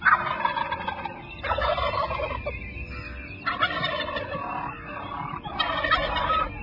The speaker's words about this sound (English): one of the coolest sounds and sights in all of God's creation. That old goblin strutting turkey in the springtime.